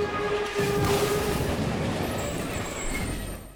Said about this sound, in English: So, what sound effect will you be choosing from the following? A complete train wreck?